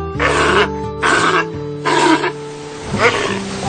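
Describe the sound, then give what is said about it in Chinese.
A sea lion gives four loud, hoarse, rasping roars in quick succession, each lasting about half a second, over a steady low hum. “今天春天姐姐给小朋友们介绍海狮、海象、海豚、海豹。”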